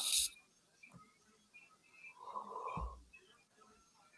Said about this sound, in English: Oh, this yawning's gonna be a problem.